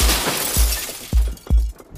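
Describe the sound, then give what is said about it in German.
Three or four sharp, loud gunshot cracks in quick succession, each a sudden booming burst that dies away fast, over a steady hiss of background noise with no talking. “Der Schuss zerfetzt seinen Oberkörper.”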